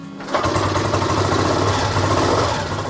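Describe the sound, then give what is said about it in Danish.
A 1969 Triumph Daytona 500cc motorcycle engine kicks in after a brief moment and runs at a steady, throbbing idle, loud, with no one talking. “En gammel Triumph Daytona fra 1969, en 500 kubik selvfølgelig.”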